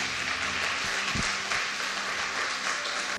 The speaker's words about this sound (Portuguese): Dê a Ele uma salva de palmas.